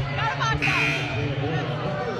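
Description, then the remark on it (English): A large crowd at a women's basketball game roars with loud, sustained booing and shouting for a couple of seconds in disagreement with a foul call, a dense wash of many voices swelling together. “crowd in disagreement, but Boylan never really got established”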